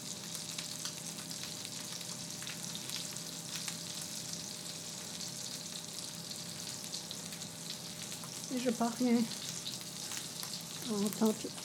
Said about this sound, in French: par les bruits de la cuisson. J'entends bien quand ça commence à rôtir.